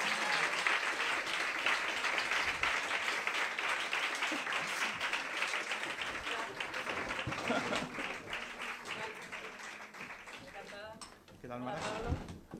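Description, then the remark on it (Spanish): Sustained applause from an audience welcoming journalist Mara Torres, the author of a reading, a dense wash of many hands clapping that gradually thins out, with voices emerging faintly toward the end. “Pues venga, como somos buenos, vamos a recibir con un fuerte aplauso a la autora de esa lectura, que es la maravillosa periodista y amiga lunera Mara Torres, por favor.”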